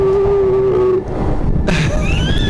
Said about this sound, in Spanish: Entonces, sucede de que puedes estar escuchando los gritos de otra gente en otras partes del mundo y ves de dónde están mandando su audio. Entonces, hay en varios, ahí está. Está en vivo, eso que estamos escuchando ahorita es en vivo.